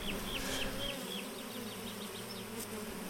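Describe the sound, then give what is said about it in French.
A dense, steady drone of many honeybees buzzing around an open hive where workers are building fresh white wax comb, continuous, with small rising whines as individual bees pass by. No one speaks. “La cire, elle devient blanche, elle est euh, très fraîche, les ouvrières euh, viennent de la bâtir parce qu'elles ont besoin, les abeilles, euh, de plus de place.”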